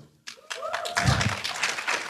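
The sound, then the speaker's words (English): A scattered burst of clapping from the women in the audience, starting with a few sharp claps and quickly filling into brief, uneven applause that stays fairly steady and moderately loud. “It, only the women clap for that?”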